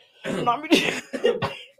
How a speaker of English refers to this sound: excuse me, I kind of need to cough, so I'm gonna.